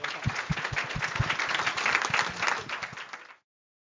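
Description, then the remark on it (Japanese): An audience applauds the four panelists at the close of a session, many hands clapping in a dense, steady patter with a few sharper claps standing out, holding at an even level for a few seconds before stopping abruptly. “あの、皆さん最後に4人のあのパネリストの皆さんに盛大拍手をお願いいたします。”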